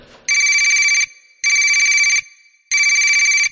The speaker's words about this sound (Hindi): घर पहुंच के खाना खा ही रही थी कि उसका फोन बजा